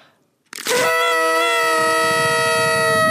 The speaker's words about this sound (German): Und darf ich noch einmal in die Tröte blasen?